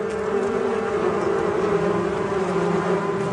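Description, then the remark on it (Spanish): A dense, steady buzzing of a bee swarm fills the scene, a continuous droning hum from many insects at once, fairly loud, with no voices. “Imagine que está ante un enjambre de abejas.”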